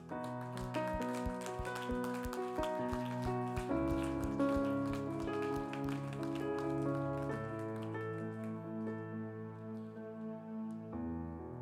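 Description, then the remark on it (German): Audience applause, a dense patter of clapping mixed with sustained keyboard or organ chords that continue throughout; the clapping is sharpest in the first few seconds, then thins under the music. “Hey, komm, lass uns einfach mal Applaus geben.”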